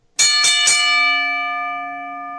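A bell is struck three times in quick succession, then its bright metallic tone rings on and slowly fades. It is fairly loud, with no voices.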